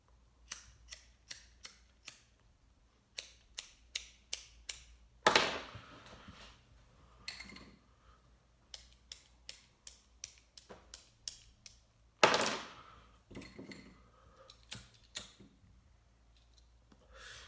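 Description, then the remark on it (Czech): A lighter is flicked again and again to light it, with bursts of sharp clicks and two louder, rougher strikes partway through, with no talking. “Starý dobrý zapalovače fungují nejlíp.”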